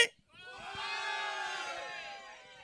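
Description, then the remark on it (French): A live audience, asked by a performer to scream for no reason, erupts into a loud, sustained group shout after a brief silence, many voices yelling together in one unbroken roar that holds steady for a couple of seconds. “Mettons que, euh, out of nowhere, je fais comme, OK, est-ce que ça vous tente de crier pour rien?”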